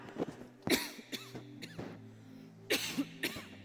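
A person clears their throat several times in a row, fairly loud, with short raspy bursts and brief pauses between them, and no talking; a preacher with a dry throat from talking during a church service.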